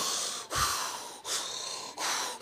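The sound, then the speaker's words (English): A voice imitates deep, rhythmic breathing as the breath of God: three loud, airy whooshes in steady succession, with short pauses between them and no speech. “It was the wind of God, the breath of God, like He was breathing.”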